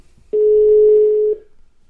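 A phone call being placed to a woman, ringing out: one steady, mid-pitched ringback tone lasting about a second, clear and fairly loud with nothing else around it and no voices.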